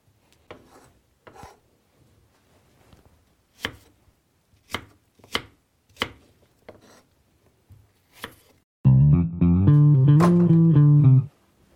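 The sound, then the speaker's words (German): A knife chops small apples into small pieces on a cutting board, about a dozen crisp, irregular thuds, followed by a loud, sustained tonal musical sound at the very end. “So, ich schnipsel jetzt die Äpfel noch ein bisschen, ein bisschen weiter klein”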